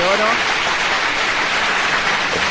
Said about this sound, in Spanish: Te damos un aplauso.